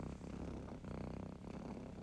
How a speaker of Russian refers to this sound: минута мурчания. Минута мурчания. Минута мурчания. О, минута мурчания, как это прекрасно звучит.